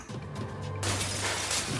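A low rumbling hum gives way to a sudden, loud burst of glass shattering in a bank during a robbery, its bright crackling debris spreading for about a second with no one speaking.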